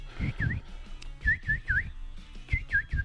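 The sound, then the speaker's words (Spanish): A voice imitates a chick's peeping with high, squeaky chirps in three quick bursts of two or three, fairly loud, with no other talk. “el pollo, el pollito, el pollito.”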